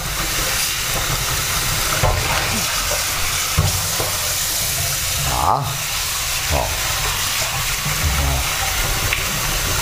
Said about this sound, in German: So, ihr hört im Hintergrund Wasser.